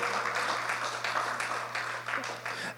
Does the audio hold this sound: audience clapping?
yes